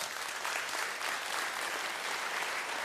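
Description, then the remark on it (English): A crowd gives a welcome round of applause as new staff members come up on stage at Hillside, in a steady, dense wash of clapping that holds an even loudness for the whole stretch, with no voices standing out. “go ahead and give them a nice welcome round of applause.”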